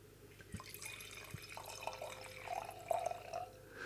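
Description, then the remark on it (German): Wine trickles steadily into a glass poured in front of a microphone, a soft continuous gurgle with small splashy drips that brighten toward the end as the glass fills. No one speaks. “Achtung, ich, dein Glas ich jetzt äh, vor meinem Mikrofon einschenken und jetzt einfach bitte schnell alle ruhig sein.”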